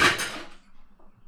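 A frying pan is slammed into a kitchen sink: one loud, bright metallic crash that rings briefly and fades within half a second, followed by faint low rustling.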